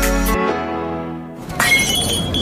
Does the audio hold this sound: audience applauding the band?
no